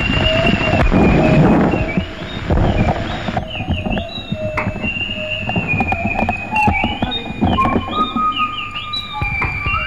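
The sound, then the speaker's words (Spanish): Experimental music from a 1968 LP record: dense clattering textures and rumbling noise, threaded with sustained wavering high tones and sliding pitches that shift abruptly partway through, loud throughout with no talking. “El contenido de ese primer LP lo podemos clasificar de música experimental, ecléctica, sin sentido o con mucho, no lo sé.”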